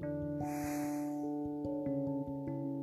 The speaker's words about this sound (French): Inspire par le nez et expire par le nez.